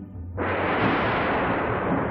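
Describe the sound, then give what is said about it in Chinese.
A sudden loud thunder clap bursts in after a brief low rumble, then rolls on as a sustained, broad roaring crackle that stays loud to the end. “轰隆隆。一个更大的雷猛地炸响了，紧接着噼里啪啦下起了大雨。”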